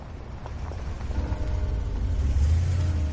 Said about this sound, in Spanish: Reggie llega en coche al edificio de la cárcel acompañado por Albi.